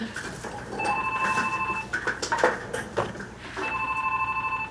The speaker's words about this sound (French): Je peux-tu répondre au téléphone? Oui, vas-y.